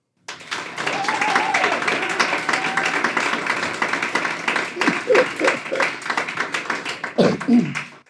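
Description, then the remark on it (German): A live audience at the Kulturhaus Odeon by the station in Brugg, Aargau, applauds steadily for several seconds to welcome the show's guest, a musician, a dense wash of clapping, with a few voices calling out over it before it tapers off. “ich bitte um einen herzlichen Applaus für meinen heutigen Gast,”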